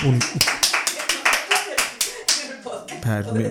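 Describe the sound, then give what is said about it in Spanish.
A short burst of applause: about a dozen sharp, crisp hand claps at a quick, steady pace, fairly loud, ending after a couple of seconds as a voice begins speaking. “Joder, aplausos, por favor, regidora.”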